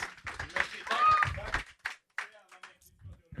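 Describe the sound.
A short burst of clapping and cheering, loud and dense for about a second and a half, mixed with excited voices, then thinning out into scattered sounds.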